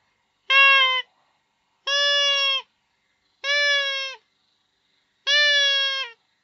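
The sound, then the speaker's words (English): Four loud blasts on a hand-blown predator call used for hunting bears, each a steady, reedy, bleat-like tone lasting about half a second, evenly spaced with silence between and no talking. “So uh, let me see what this thing even sounds like. I don't even know what call this is.”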